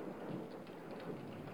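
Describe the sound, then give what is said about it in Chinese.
Late at night, steady rain hisses and patters outside without a break, with lightning and a low rumble of thunder rolling underneath, keeping the whole short stretch dense and constant with no voices. “外面开始下起雨来，连带着的还有闪电。”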